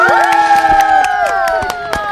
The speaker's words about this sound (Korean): 박수!